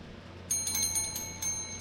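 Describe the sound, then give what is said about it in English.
A small hand bell rings out in a quick series of light strikes, its bright, high metallic tone sustaining between hits. It sounds fairly soft, with no one talking. “No, there's always been two shade bells, but they're not usually so close to each other.”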